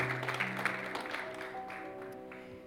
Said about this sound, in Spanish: este pueblo que es bendecido levanta un gloria a Dios con un fuerte aplauso para ti. Amén.